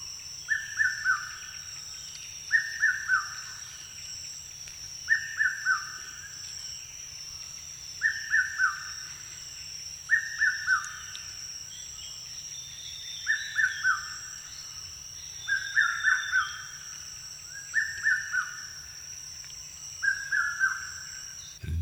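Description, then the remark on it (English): A red-chested cuckoo, a medium-sized grey bird with a reddish chest about 12.2 inches long, calls over and over, each loud three-note phrase repeated at a steady pace every couple of seconds, with a constant high insect drone and faint other birds in the background. “That is a red chested cuckoo.”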